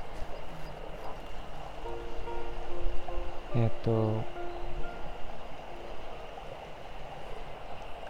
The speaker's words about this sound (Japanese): ちょっと森の中の小川の近くに行って水の音がすごいかもしれないんですが